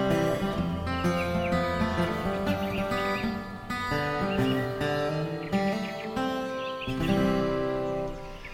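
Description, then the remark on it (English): Birds chirp and trill in short bursts over a steady, dense drone of tonal sound, with a faint insect-like hum of crickets running underneath throughout, in the wilderness at dawn. “What with the birds singing and the trees swaying in the breeze and the last crickets of the night, the morning sounds were beautiful in her ears.”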